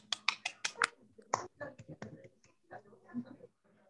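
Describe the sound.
A short burst of scattered applause welcoming a speaker at an evening fellowship gathering, a handful of sharp, crisp claps in quick succession, fading into quieter, irregular sounds as someone begins talking.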